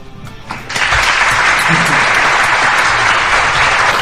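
An audience breaks into loud, sustained applause after a brief quieter moment, the dense clapping holding steady at full volume through to the end.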